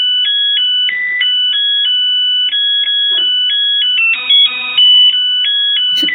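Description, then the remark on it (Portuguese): A rice cooker used to cook rice (gohan) plays its finishing melody, a bright electronic tune of steady, high beeping notes stepping up and down in a simple repeating pattern, loud and alone with no voices. “Aí faz o barulhinho da, do Gohan, da panela.”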